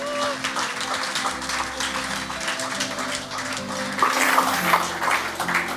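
Sustained applause from an audience welcoming two people onto the stage, a dense wash of many hands clapping that swells louder toward the end, with a few whoops and cheers rising above it.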